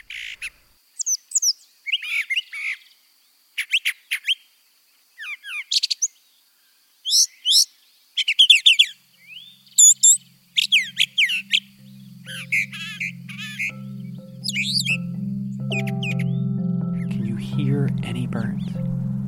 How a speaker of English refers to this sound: Listen to this guy, the brown thrasher. He has more than 1,000 song types and can even do covers of other bird songs.